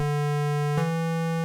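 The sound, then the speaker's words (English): A steady, buzzy square-wave tone from the oscillator of a 1985 Roland JX8P analog synthesizer holds one low pitch throughout, rich in bright overtones, with a brief click partway through and no voices. “This time we have two oscillators with the saw wave, the pulse width, the square”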